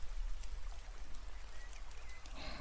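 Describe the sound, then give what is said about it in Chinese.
Rain from a sun shower, falling while the sun shines, makes a steady, soft hiss with faint scattered patter over a low rumble, continuing evenly throughout with no voices, then growing slightly brighter and denser near the end. “雨声和温暖的阳光，都是让人心情愉悦的事物呢。”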